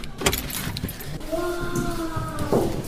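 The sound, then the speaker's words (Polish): Brief metallic clinks and rattles of keys, followed by a short squeaky, tonal sound as the door lock of a new apartment in a social housing estate is worked, with faint background noise. “Mogę otworzyć? Oczywiście, proszę bardzo. Który to jest klucz?”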